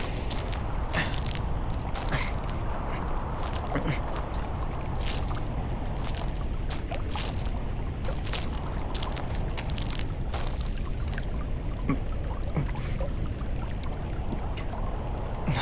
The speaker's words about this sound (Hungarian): Egy hatalmas, fokozatosan szélesedő, szinte teljesen kiszáradt meder. Egy folyó lehetett valamikor? Nem érdekes, mert Csordogál itt még egy kis víz.